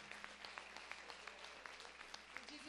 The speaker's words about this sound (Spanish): Un aplauso.